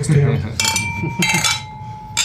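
Glasses clink together in a toast, a few bright ringing taps with a lingering tone, while voices murmur softly underneath.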